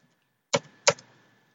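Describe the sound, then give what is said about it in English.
Two crisp computer keyboard key presses, about a third of a second apart, fairly sharp, followed by quiet; no one speaks. “Yeah, type it in quick.”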